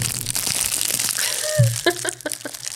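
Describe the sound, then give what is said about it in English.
Munching on a packaged Little Debbie unicorn snack cake, with crinkly, crunchy bursts coming in an irregular run of chews and a few sharper crackles near the end. “These were brought to my attention and we have to now feed the guest the unicorn, the unicorn. You want to make munching”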